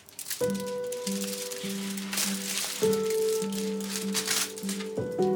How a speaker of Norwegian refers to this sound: Han studerer pakken litt, før han river av sølvpapiret.